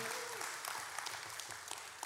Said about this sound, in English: Where are all our fathers in the house? Are you here this morning? Yeah? We can give it up for them. We can give them another clap offering.